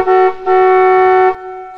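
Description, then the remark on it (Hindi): The horn of a broken-down car with an overheated engine, on a deserted national highway at night, honks twice: a short blast followed by a longer sustained one, loud, with a faint tonal ring lingering after. “विजय ने पानी का जरिकन निकालने के लिए गाड़ी की डिक्की खोली तभी तभी उसकी गाड़ी का हॉर्न बज उठा”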